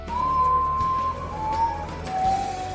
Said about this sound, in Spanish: La leyenda cuenta que en las noches más oscuras, cuando la luz abandona la tierra y ésta se sumerge en un cielo estrellado, se puede escuchar el llanto de la chica en forma de graznido.